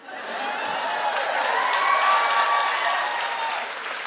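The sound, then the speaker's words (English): A crowd applauds steadily, a dense wash of many hands clapping that swells quickly, holds at a strong level for a few seconds, then eases slightly toward the end. No one speaks. “I went for it and people applauded.”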